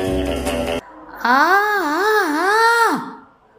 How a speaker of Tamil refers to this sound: பயங்கர அலறல் அந்த அமைதி பள்ளத்தாக்கின் நாலா பக்கமும் எதிரொலித்து பீதியை கிளப்பியது